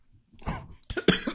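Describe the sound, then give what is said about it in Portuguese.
Someone coughs after choking for the third time while eating and talking: a rough, throaty cough followed by a pause, then a louder burst of two or three harsh hacking coughs, with no talking. “engasguei pela terceira vez.”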